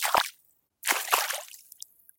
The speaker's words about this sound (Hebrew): לקפוץ בשלוליות.